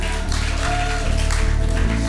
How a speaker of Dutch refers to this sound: Applaus voor jezelf.